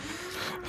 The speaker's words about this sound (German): Äh, jetzt bohren sie bei mir wieder im Hintergrund. Das tut mir schon mal leid. Aber unter uns sind gerade neue Nachbarn eingezogen. Das heißt, wenn ihr ab und mal Bohrgeräusche im Hintergrund hört.